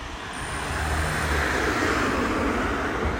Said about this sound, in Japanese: ああ車が通りますね車が通ります